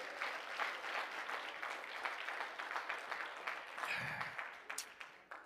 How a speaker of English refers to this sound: Why don't you clap your hands one more time as you're being seated?